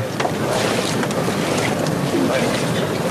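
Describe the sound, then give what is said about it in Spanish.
Many bearers' feet shuffle and scrape across the asphalt of the Plaza de la Campana (the 'racheo') in a steady, dense rasp, soles dragging in unison as they carry the float of Jesús descendido de la cruz of a silent brotherhood, fairly loud with a faint crowd murmur behind. “Escuchamos el racheo”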